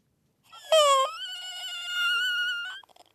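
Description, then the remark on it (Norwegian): A newborn baby at Nordfjordeid hospital in Norway lets out a single drawn-out, high-pitched wailing cry lasting about two seconds, clear, with no other voices around it. “Fortsatt er det lyd av nyfødte på Nordfjordeid sykehus men bare ei veke til, fastslår avdelingsjordmor”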